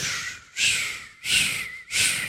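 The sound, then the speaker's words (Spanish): A voice imitates air hissing out of a punctured car tire while driving, a series of four sharp, breathy 'psss' bursts in a steady rhythm, fairly loud, with no other talk. “Usted dice, posiblemente pinché una llanta.”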